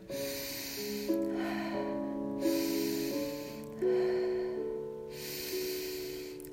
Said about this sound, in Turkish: Alıp verme arasında beklemeden ardışık nefesler alıyorum, veriyorum. Alıyorum nefesimi, hemen veriyorum. Ardına beklemeden yine hemen alıyorum.